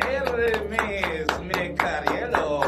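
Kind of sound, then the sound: crowd, applause welcoming a guest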